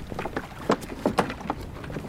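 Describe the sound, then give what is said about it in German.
A wooden peat boat casts off from a harbour, with irregular splashes and hollow knocks rising over a steady low rumble of wind and water, moderately loud, with no one speaking. “Torfschiffer Martin Brünjes und Kollegen sind mit letzten Vorbereitungen für die gleich beginnenden Fahrten beschäftigt.”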